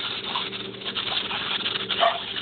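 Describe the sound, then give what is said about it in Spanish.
Dogs sound off somewhere in the house, muffled, with a short louder outburst near the end over a steady background hum. “¿Qué pasa? Los perros de mi casa.”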